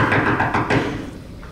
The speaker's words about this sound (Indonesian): Suatu saat pintu rumahnya digedor.